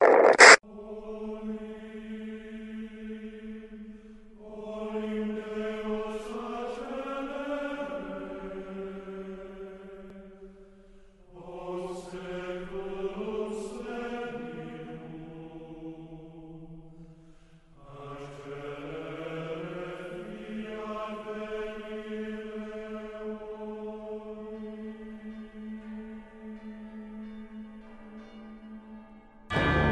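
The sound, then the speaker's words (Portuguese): Orchestral film score mixing sacred church music with profane Romani music, with swelling, sustained choral-like chords and a few bright bell strikes, played loud and full, with no one speaking over it. “E o cara ele trouxe a música sacra misturada com a música profana, né?”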